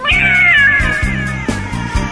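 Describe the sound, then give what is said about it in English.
A cat lets out a long, drawn-out meow that bends downward in pitch, fairly loud, set over a low rhythmic pulsing backdrop with no talking. “You turn back around, and staring you face to face in the mirror is a cat.”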